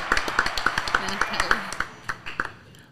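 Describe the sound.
Applause from a small group, a steady patter of sharp claps that thins out toward the end, with faint voices underneath.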